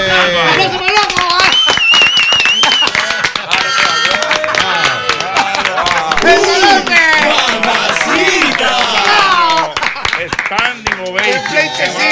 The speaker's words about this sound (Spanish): Vamos a aplaudirlo.